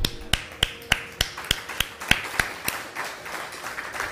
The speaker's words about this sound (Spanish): Aplausos.